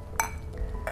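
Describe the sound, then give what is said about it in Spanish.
Glasses clink together in a toast, two bright ringing taps less than a second apart, fairly loud over a quiet background hum. “Salud.”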